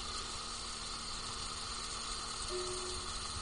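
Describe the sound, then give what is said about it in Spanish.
Heavy rain pours down in a dense, steady hiss that stays loud and even throughout, with no voices. A faint low hum briefly rises beneath it near the end. “Está lloviendo a cántaros.”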